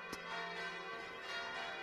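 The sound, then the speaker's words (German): Four church bells, cast in 1950 and 1991, ring at noon at a village church in Upper Franconia, Germany, calling to service with a dense, sustained wash of overlapping metallic tones, a sharp strike early on and steady ringing throughout. No voices are heard. “Heute rufen vier neue Glocken von 1950 bzw. 1991 zum Gottesdienst.”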